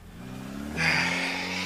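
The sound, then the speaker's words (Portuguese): A car engine idles with a low hum, then revs up sharply into a louder, rushing roar that holds steady as the vehicle pulls off, with the people who got in driving away. No one speaks. “Eles entram no carro e vão embora.”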